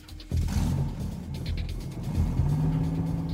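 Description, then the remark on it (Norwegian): A car engine starts abruptly after a brief quiet moment, rumbling steadily, then rises in pitch as the car pulls out of a store parking lot and accelerates. No voices are heard. “Butikksjefen, Pål Roar Bråten, starter opp, og bilen ruller ut fra parkeringsplassen.”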